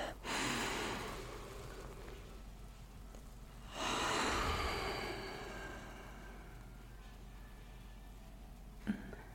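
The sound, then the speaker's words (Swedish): A deep breath drawn in with a broad airy rush during a grounding exercise with feet on the floor, followed a few seconds later by a long, slower exhale that fades out, then a brief faint sniff. “Och sen tar vi ett djupt andetag in.”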